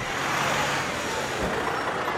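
Steady roar of road traffic with tour buses and trucks rumbling past at a vista point on the north side of the Golden Gate Bridge in Marin County, a dense continuous wash of engine and tire noise with no voices.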